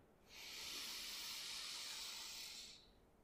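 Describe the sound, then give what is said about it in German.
A single deep breath drawn in through the nose into the belly during a guided breathing exercise, a steady airy hiss lasting a couple of seconds that swells in and fades out, with no talking. “Ah und nimm gemeinsam mit mir ein paar tiefe Atemzüge durch die Nase in den Bauch ein.”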